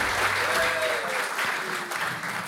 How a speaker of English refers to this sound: Very good. For those listening, we've been training our audience tonight how to applaud and how not to applaud.